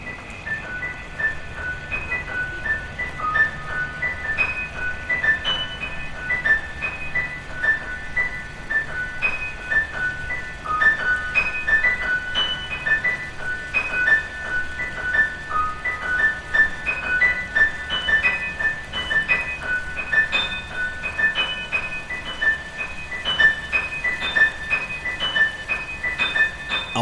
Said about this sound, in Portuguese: correr desta água das ribeiras para acalmar o verão, os dedos da pianista Joana Gama correram pelo teclado do piano, enquanto ia escutando este marulhar da água e as memórias da coreógrafa Olga Rouris numa qualquer sombra do Jardim do Gulbenkian.